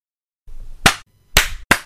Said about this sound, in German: Soll ich einmal klatschen?